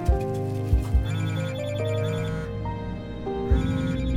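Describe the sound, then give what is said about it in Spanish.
A telephone rings with a melodic electronic ringtone, its bright tune and steady beat playing loudly and continuously for a few seconds, with no one speaking. “¿No va a contestar el teléfono? Podría ser importante.”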